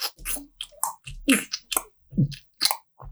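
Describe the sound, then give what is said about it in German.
A voice imitates bath slippers slapping with each step: a run of about eight wet, squishy smacks made with the mouth, fairly loud, in an uneven walking rhythm. “Ich, ich sage immer so, äh, äh, äh, äh, lebt dein Leben so, dass du niemals äh, Badelatschen tragen musst. Und dieses deutsche”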